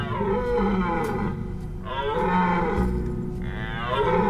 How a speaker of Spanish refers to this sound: Entonces, empezó a soltar un extraño ruido animal que solo puedo describir como una combinación entre un burro y un delfín.